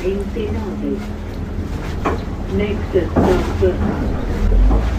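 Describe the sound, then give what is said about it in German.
A boat engine rumbles low and steady, with a couple of dull mechanical clunks as it shifts from forward into reverse, while muffled voices talk over the noise. “Auch jetzt ist er nicht gegengefahren, sondern er hat einfach bloß von vorwärts auf rückwärts umgestellt.”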